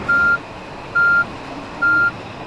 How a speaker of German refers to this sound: Dann kommt der große LKW mit der Lieferung für den Tag. Die Burger werden zentral produziert und tiefgefroren an die rund 1300 McDonald's-Restaurants in ganz Deutschland geliefert.